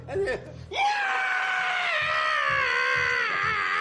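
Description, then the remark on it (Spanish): A man lets out one long, loud, high-pitched squeal imitating a pig, shouted into another man's face, held for about three seconds after a brief burst of vocal noise. “Es un chancho.”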